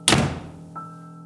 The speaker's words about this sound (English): Leaving the lights on, she ran to her room and slammed the door shut.